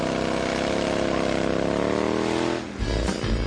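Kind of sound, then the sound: vehicle, motorcycle engine revving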